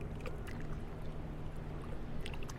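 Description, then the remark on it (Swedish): A boat on the open sea off the Gothenburg archipelago, Sweden, on a cool late-May night in 2020: a steady wash of water with a low, constant engine-like hum beneath it, unbroken, no voices. “Det är natten mellan den 25 och 26 maj och vi befinner oss på havet utanför Göteborgs skärgård.”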